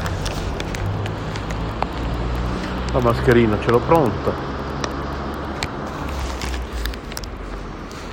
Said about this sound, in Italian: Allora, vediamo se questo che arriva è il mio autobus.